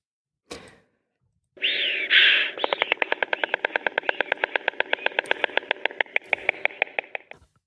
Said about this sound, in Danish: det her, det er øh, lyden af storken Annika, der lander i sin rede i øh, Smedager i Sønderjylland, hvor hun, som altså er en af bare seks storkemøder, ruer på æg her i Danmark.